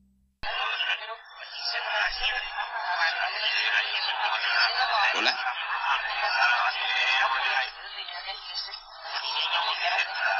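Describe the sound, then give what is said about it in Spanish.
Thin, tinny radio-style interference picked up on a cell phone crackles and warbles steadily for about ten seconds, like a spirit box sweep, a dense garbled stream with fleeting voice-like fragments, loud with only brief dips. “Hace algunos meses, en mi celular se logró captar una interferencia bastante curiosa.”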